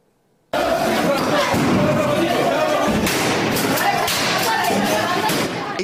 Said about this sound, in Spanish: entre lacrimógenos y gritos, terminó una manifestación a las afueras de la guardería.